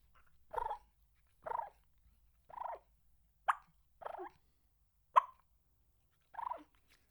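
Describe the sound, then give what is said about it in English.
A turkey call is used to make about seven short clucks and rolling purrs, evenly spaced roughly a second apart, fairly loud with quiet gaps between and no talking. “But the difference would be if you cluck and purr, you can do a cluck and purr like”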